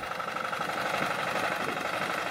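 A tractor engine runs steadily, a loud, continuous mechanical rattle with a fast, even chugging rhythm and no voices; the tractor is used for plowing rice fields in Đồng Tháp, Vietnam.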